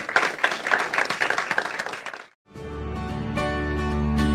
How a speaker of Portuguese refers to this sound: Você pode aplaudir o Senhor nessa manhã.